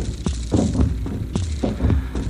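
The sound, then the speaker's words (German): A muffled, throbbing heartbeat pulses, its low thumps arriving in steady paired beats over a faint hum, with no voices. “Oh, ich spüre den Herzschlag über deine Handherzen.”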